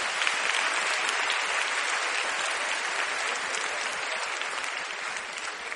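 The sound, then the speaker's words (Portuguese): A church audience bursts into steady, sustained applause to honor the Lord, many hands clapping in a dense, even wash that holds at a constant loud level for several seconds without any voices. “Você pode aplaudir o Senhor para a honra e glória dele?”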